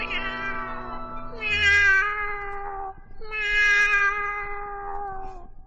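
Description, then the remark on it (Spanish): A puppeteer voices a cat, giving two long, drawn-out meows that rise and fall in pitch, loud with no talking around them. “Pobre gatito, eres simpático.”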